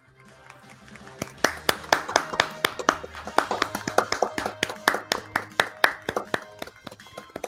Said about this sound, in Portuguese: Aí aqui no final teve a salva de palmas oficial.